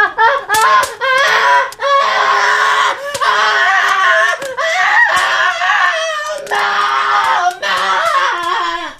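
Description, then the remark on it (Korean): A child screams, loud and shrill, in long piercing wails with only brief gaps for breath, nearly continuous from start to finish: a young boy whose hair has caught fire at a family barbecue gathering. “아이의 비명 소리에 깜짝 놀라 돌아보니 최 약사님 손자 머리에 불이 붙어 있었습니다”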